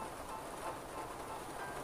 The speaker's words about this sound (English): It's raining here. Uh, I hope that's not a problem.